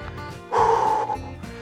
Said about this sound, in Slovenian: Zdaj, ko smo še malo zadihani, kar tudi skozi usta, ampak ko se nam mal srčni utrip umiri, bo tudi dihanje bolj umirjeno in lahko pri umirjenem dihanju dihajmo tudi skozi nos, torej vdih skozi nos in izdih skozi usta.